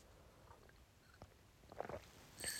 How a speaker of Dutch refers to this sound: Ik neem heel even een slokje thee, want mijn keel is droog.